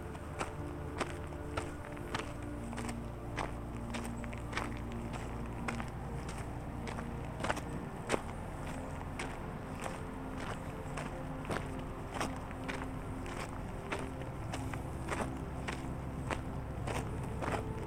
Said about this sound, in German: Du bemerkst, wie sich der Klang deiner Schritte nach und nach verändert, wenn du vom erdigen Pfad im Lighthouse Park zu den Steinen des White Lake Trails gelangst